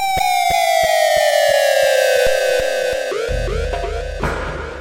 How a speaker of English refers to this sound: It deserves to have, have its own siren.